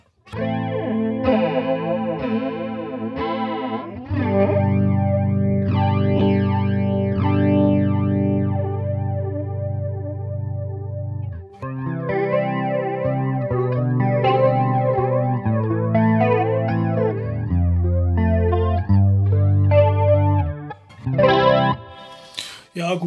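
An electric guitar plays chords and melodic lines through a Boss MD-200 modulation pedal, giving a wavering, chorus-like shimmer, with a brief pause midway before the playing resumes, loud.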